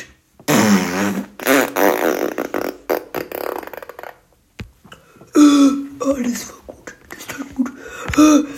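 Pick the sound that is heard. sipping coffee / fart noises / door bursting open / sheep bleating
fart noises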